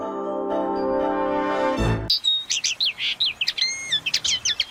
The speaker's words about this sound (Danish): Jeg skal sige, det man kan høre lidt i baggrunden er en lille tornirsk, og den kan du høre her, kære lytter, fordi du kan ikke høre den så mange andre steder, fordi der er ikke så mange tornirsker